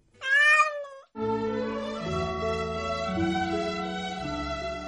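A single drawn-out cat meow with a wavering, rising-then-falling pitch, loud and alone for about a second, followed after a brief gap by steady instrumental music.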